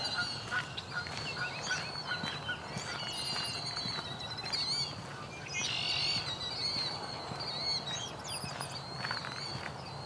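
canada geese honking

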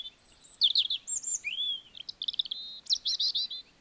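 european robin chirping

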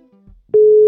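telephone call tone

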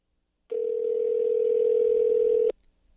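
outgoing phone call ringing

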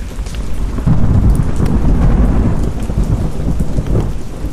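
rain

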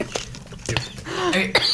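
coughing

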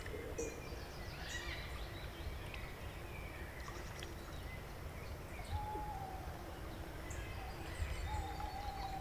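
owl calling

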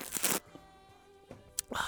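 loud sip of coffee

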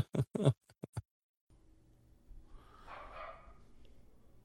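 dogs barking

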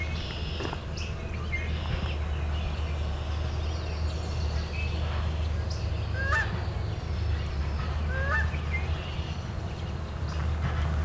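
canada goose honking

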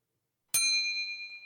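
bell ding

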